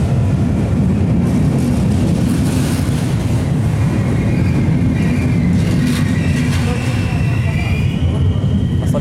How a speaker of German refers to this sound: Da ist der Zug.